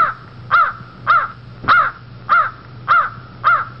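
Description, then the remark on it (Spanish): A goose honks six times in a steady, evenly spaced rhythm, each call loud, harsh and nasal, with quiet gaps between and no voices. “Un poco más allá, le salió al paso un inmenso ganso.”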